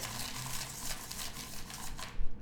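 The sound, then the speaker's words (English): Crinkly rustling of paper slips being stirred around in a bowl, a continuous dry shuffle for a couple of seconds that ends with a few louder bumps, with no voices. “The bowl of celebration. We're gonna shuffle it up so people can hear it.”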